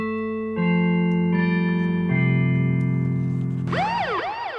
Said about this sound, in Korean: 자, 이게 저 골든벨 소리거든요. 이 골든벨 종소리가 나면은 여러분께 퀴즈를 드릴 거예요.